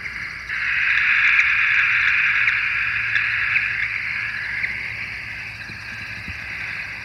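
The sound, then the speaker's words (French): A radio tracking receiver gives off steady, hissing static at night, with faint, sparse beeps from the transmitter on a tagged bat leaving its roost barely showing through the noise. No voices. “La petite 2.3 qui sort gentiment de son gîte. c'est le petit bip bip qu'on entend, ouais.”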